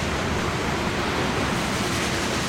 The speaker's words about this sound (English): noisy train.